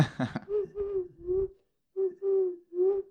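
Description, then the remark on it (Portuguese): A person imitates a turtle dove's cooing: two phrases of three low, purring coos each, separated by a brief pause, delivered after a short breathy burst. “Imito rolas.”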